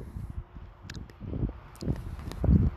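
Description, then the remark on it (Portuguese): A candy wrapper crinkles and rustles in irregular bursts as a piece of candy is unwrapped, growing louder toward the end, with sharp little crackles mixed into the soft handling noise. “Uma balinha aqui. Desculpa pelo barulho.”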